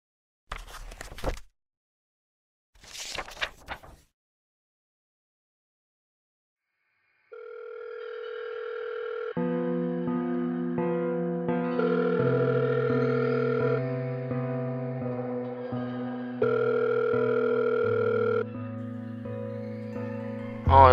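Two brief rustling bursts, then a steady electronic telephone ringback tone, heard before a phone call connects, stepping through several pitches like a melody, playing alone and fairly loud for about fourteen seconds.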